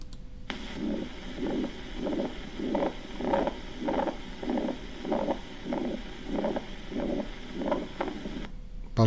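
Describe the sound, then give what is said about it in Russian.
A heart murmur of a ventricular septal defect: around thirteen steady, evenly spaced beats, each carrying a harsh, low whooshing swell, over a constant faint hiss with no talking. “Тебе шум при дефекте ДМЖП, при, де, при, де, при дефекте межжелудочковой перегородки.”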